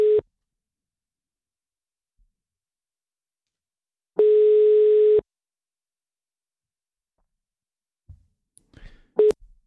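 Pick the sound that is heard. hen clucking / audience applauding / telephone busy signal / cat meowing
telephone busy signal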